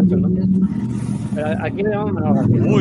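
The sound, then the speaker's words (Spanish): A motorbike engine rumbles steadily outside, a low droning growl running beneath people talking in the foreground for the whole stretch. “¿Qué camión? Eso es una moto, chaval.”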